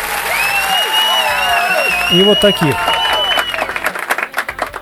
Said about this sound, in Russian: Это достойно аплодисментов, прям вот таких. И вот таких.